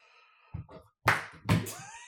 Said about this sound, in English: slow clapping. It's gonna stay slow. It's gonna stay Dude, slow.